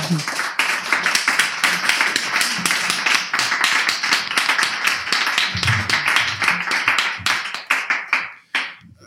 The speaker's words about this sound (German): Einen heftigen Applaus bitte.